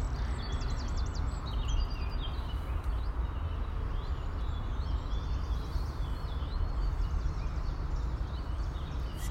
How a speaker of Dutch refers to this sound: Ik loop nu echt heerlijk in, een, in het Viaanse bos. Voor zover als dat een bos is. Heel klein stukje natuur hier, maar zo mooi. En de zon die schijnt. En ik weet niet of jullie het kunnen horen, maar die vogels.